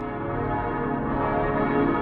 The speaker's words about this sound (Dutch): Ja, we hoorden de kerkklokken hè, van eh, Straatsburg.